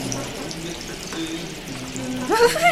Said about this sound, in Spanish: ¡Ay! ¡Qué agua tan fría! pero qué fresca. Ay, siento cómo se me resbala entre los senos. Hace sus correrías hasta mi vientre baja por mis muslos hasta hacerme cosquillas en los pies.